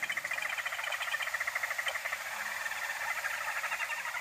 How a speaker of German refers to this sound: Und das Geschnatter, das Gezwitscher, was ihr gerade hört, das sind die Zambian Barbets.